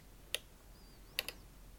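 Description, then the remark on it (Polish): Sharp, bright clicks from a screen reader double-click or double-swipe gesture: a single click, then a quick double click about a second later, with a faint gliding tone between them, over a low steady hum. “Proszę posłuchać. Taki klik podwójny lub podwójne przesunięcie w prawo,”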